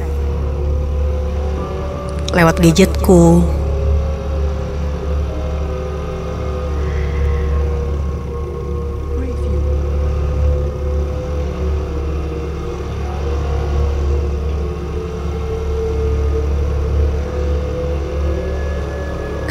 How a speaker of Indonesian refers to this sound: Aku lantas menyalakan motor dan langsung tancap gas sembari mendengarkan musik dari radio yang tersambung di headset.